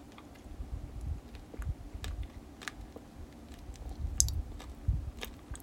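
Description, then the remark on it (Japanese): Soft, irregular chewing with moist clicks and low thuds as someone eats a cola-flavored chocolate with a lime gummy inside, heard alone without talk, fairly quiet and steady. “コーラ風味のチョコの中にライムグミが入ってるそうですいただきます”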